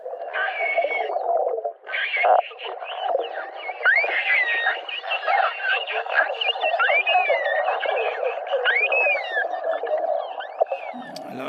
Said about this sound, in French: on vient d'entendre un petit groupe de globicéphales euh, qui socialise. Le globicéphale, c'est quoi ah, c'est déjà un gros mammifère.